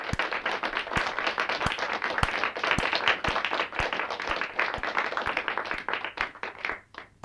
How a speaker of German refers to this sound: Und das ist mein Applaus. Das ist übrigens ein alter Ken Jebsen, war.